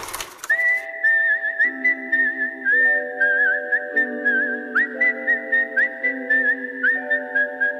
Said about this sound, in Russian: Но, по признанию режиссера, любимой его актрисой является Ума Турман, которую он снял в главной роли своей идеологии «Убить Билла». Думаю, саундтрек к этому фильму стал самой узнаваемой свистящей мелодией.